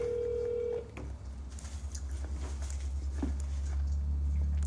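A steady electronic ringing tone of an outgoing phone call that goes unanswered sounds for under a second at the start, then cuts off, leaving a low, droning background hum with faint rustling and no talking.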